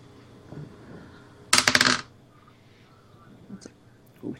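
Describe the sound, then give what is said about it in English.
A d20 die is rolled for an attack in a tabletop role-playing game. It clatters across a hard tabletop in a quick, rattling burst of small bounces lasting about half a second, fairly loud, with faint murmuring voices in the background. “had my dice here, but not the bag open. D20. Come on, where are the D20s?”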